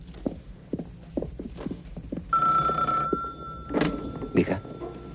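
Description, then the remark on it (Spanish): A hotel telephone gives a single steady, bright electronic ring lasting under a second, preceded by a run of soft, rhythmic thumps and followed by a few louder knocks and muffled sounds, as Nichols gets up and goes to the phone. “Se levanta y le señalan el teléfono. Nichols va hacia él.”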